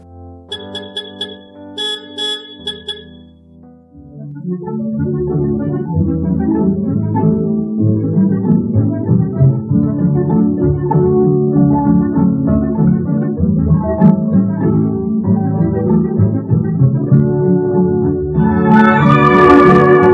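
An Argentine tango song plays, opening with a few bright, ringing notes before a full, steady band comes in and carries the melody at an even loudness throughout.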